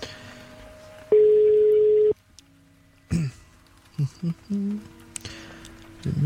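A steady electronic tone sounds for about a second, followed by short bursts of beeps and tones like a phone line connecting, with a brief ring-like pulse near the end, as a telephone call is placed from Radio Loud to the newspaper Den Vestjyske Kystavis.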